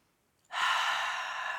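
After a brief silence, a single deep, airy breath, in through the nose and out through the mouth, begins abruptly and continues steadily to the end, fairly loud, like a long slow exhale or sigh.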